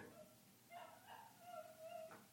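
A dog whimpers and whines in the background in a series of thin, high-pitched, drawn-out howling cries, fairly faint, with no one talking over them.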